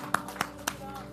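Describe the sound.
One person claps three times in a quick, steady rhythm, each sharp slap standing out clearly over a faint, low background of voice.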